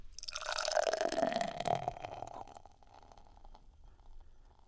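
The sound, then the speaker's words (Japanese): Yebisu beer is poured into a glass for a toast in one steady, gurgling stream for about two seconds, fairly loud, then it trails off into a faint fizzing hiss. “さあここはですねエビスビールでまず乾杯をしてですね語らうということでございますよろしいでしょうか早速じゃあ飲ませていただいてそうなんですわかりましたいい音ですねついていただいて”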